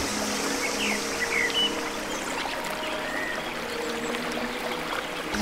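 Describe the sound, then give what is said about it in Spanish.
Steady rushing of a flowing stream, a continuous bright wash of water noise, with a few faint bird chirps over it and no talking. An Indigenous community in Colombia uses this stream's water for many things. “Nosotros utilizamos esta agua para muchas cosas.”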